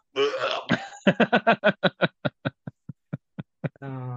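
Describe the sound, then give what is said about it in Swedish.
A pig grunts from inside a building in a rapid series of about a dozen short, throaty bursts that gradually slow and soften, starting with a longer squealing grunt and ending on another drawn-out one. “nu hör ni ganska tydligt alltså grymtande där inifrån”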